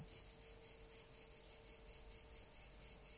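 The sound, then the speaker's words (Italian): Cicadas chirp steadily in a dense, pulsing high-pitched drone, rising and falling in a regular rhythm, with a faint low hum beneath and no voices. “Ecco, sentite le cicale, ma sentite che meraviglia.”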